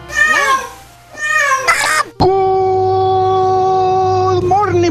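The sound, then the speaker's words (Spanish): Several loud cat meows in quick succession, the last one stretching into a long, sustained yowl that holds steady before trailing off; no talking over them. “Este, tengo 13 gatos en mi casa y es la, son la adoración, la felicidad.”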